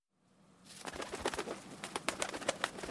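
Pigeons coo softly amid busy rustling and scattered fluttery clicks, fading in after a moment of near silence and continuing at a moderate level with no voices.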